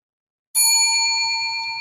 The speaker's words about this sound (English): I'm going to miss ringing this bell, but we'll be back next week to do it all over again.